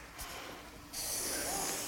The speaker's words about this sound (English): Well, I heard a gasp. That was interesting. Somebody either really likes cats or really hates them.